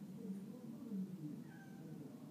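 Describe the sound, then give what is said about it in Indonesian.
A pet cat at home meows faintly a couple of times, its thin drawn-out cries sitting low in level above a dull background hum, with no one speaking. “sama kucing gue suka gitu tuh kalau dia di rumah sendiri cuman ada gue doang berisik buat meong meong meong meong dia nggak tahu gue lagi ngomong begini gangguin aja gitu”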